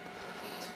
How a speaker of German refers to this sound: Wenn ihr jetzt gerade so ein Rauschen im Hintergrund hört, mein Drucker kalibriert sich gerade, ich kann es jetzt leider nicht ändern, müssen wir an dieser Stelle leider mitleben.